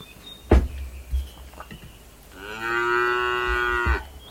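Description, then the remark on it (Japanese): A single long cow moo, loud, swelling for about a second and a half after a few soft knocks and thumps, with faint background hiss and no talking. “来ていただいた方には、とりあえずこの牛の鳴き声で出迎えさせていただくということをやらせていただいております。”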